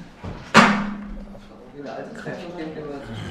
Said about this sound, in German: Können wir hier irgendein Fenster hier aufmachen? Ja, das, das geht immer zu. Das geht immer zu.